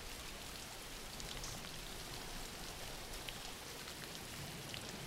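Steady rain falls in a continuous, even hiss, with faint scattered droplet ticks on top and no voices or thunder.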